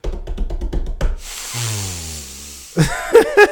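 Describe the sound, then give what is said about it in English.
A voice imitates forceful breath-work breathing: a quick run of sharp, hissing puffs, then one long drawn-out hissing exhale under a low strained groan, ending in a few short voiced sounds. “Just doing my breath work. Just fucking breathing, bro.”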